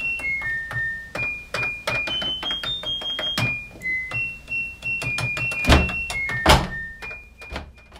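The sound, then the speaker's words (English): A washing machine's electronic beeps, used by a music producer to play a tune, form a quick, bouncy melody of short high tones that step up and down in pitch, punctuated by sharp clicks and dull thumps, with no talking. “it is a washing machine.”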